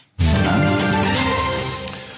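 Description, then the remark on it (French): A short news jingle bursts in after a brief silence, a bright, full chord that rings out loudly and slowly fades over about two seconds, with no voices. “le jingle est arrivé pile poil au bon moment.”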